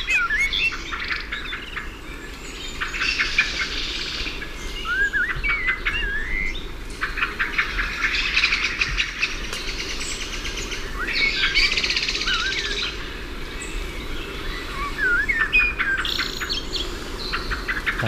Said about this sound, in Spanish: Un mirlo canta primer término y detrás cinco o seis de ellos en plena zapatiesta.